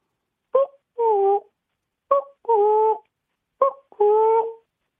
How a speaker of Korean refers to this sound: 예, 나올 때가 다릅니다. 뻐꾸기요? 예, 뻐꾸기 소리예요.